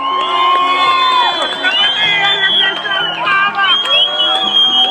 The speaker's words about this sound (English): a protest pushed Russian forces out of the city square and even led to citizens capturing a Russian tank. There's a video of a guy waving a Ukrainian flag from up on top of the tank as it cruises through these cheering crowds.